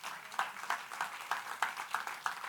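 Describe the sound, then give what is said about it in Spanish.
A crowd claps together in a steady rhythm, sharp regular beats over a dense wash of applause, moderately loud, with no voices standing out; applause for the Lord, called for by a Spanish-speaking preacher. “¿Por qué no le da un aplauso al Señor en esta hora?”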